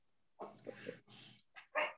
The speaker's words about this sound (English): like like the dogs barking at us. They're booing us. that's I know. Yeah. That's doggy style booing.